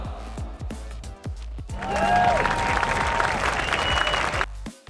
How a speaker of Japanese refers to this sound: はい、ちょっと拍手がでかすぎました。